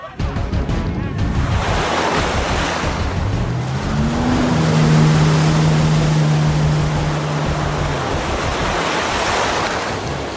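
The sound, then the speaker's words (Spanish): Ocean waves break and wash steadily onto a beach in a loud, continuous roar, with wind noise and a low droning hum, like a motorboat, rising in the middle. “Yo me voy a la playa que tengo que salvar el mundo.”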